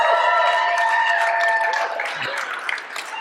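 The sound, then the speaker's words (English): A church audience applauds a woman preaching her first sermon, with dense, steady clapping that tapers slightly toward the end, while sustained musical tones hold beneath it. “Can you guys give her one more round of applause?”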